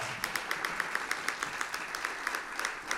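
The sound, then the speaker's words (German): Audience applause at a stage show, welcoming the latest winner of the Goldiger Biberflatte: a steady wash of many hands clapping, with sharper individual claps popping out in a quick, irregular rhythm throughout, moderately loud and with no voices over it. “Huh großen Applaus für den letzten Gewinner vom Goldigen Biberflatte, der George Singer.”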